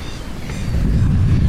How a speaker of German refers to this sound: Boah, hier ist ja noch mehr steife Brise. Das geht ja gar nicht mehr, hört ja gar nicht mehr auf.